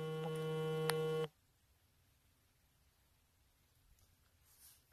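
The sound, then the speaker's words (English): A loud, steady electronic phone tone with strong harmonics sounds for just over a second, then cuts off abruptly into quiet background noise. “Sorry, um, my phone just got.”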